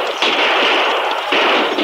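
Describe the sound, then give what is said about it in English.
Gunfire exchanged across a canyon, the Rangers returning fire from both sides of the canyon, in a loud, continuous barrage of overlapping shots, with fresh volleys bursting in about every second. The crackle is harsh and noisy, and no one speaks. “The Rangers leaped from their saddles and spread out as they returned the fire from both sides of the canyon.”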